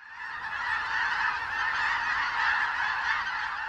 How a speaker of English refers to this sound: There are times in the Central Valley of California when the sky is filled with what looks like clouds of birds. They're not just locals. This is part of a migratory route, like a bird superhighway connecting Patagonia with the Canadian Arctic.